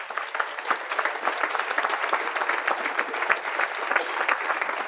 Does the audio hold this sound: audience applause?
yes